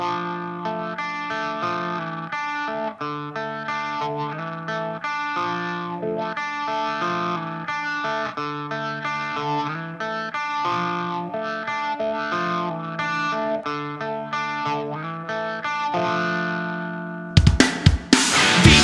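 A rock song plays loudly and steadily, dominated by thick, distorted electric guitars with sustained chords, cutting off into a brief noisy burst near the end.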